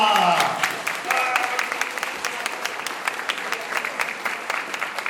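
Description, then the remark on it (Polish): An audience claps steadily at the end of a talk, a dense patter of many hands that stays fairly even, with a brief voice near the start before the applause carries on alone. “Brawa!”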